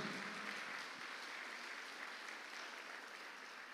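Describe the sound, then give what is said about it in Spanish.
A church audience applauds the King, Christ, during a service of breaking bread, a dense wash of many hands clapping together at an even level for several seconds, with no speech over it. “Déselo fuerte al rey.”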